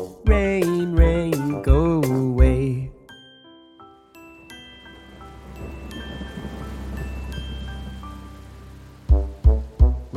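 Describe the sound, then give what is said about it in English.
Steady rain patters on a surface for several seconds, with faint chime-like tones ringing over it, between bursts of a child's sung melody at the start and end. “Rain, rain, go away. Come again another day.”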